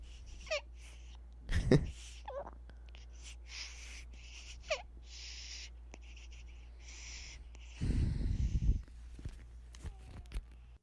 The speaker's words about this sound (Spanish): Ahí al último escuchó la respiración de su mamá cansada.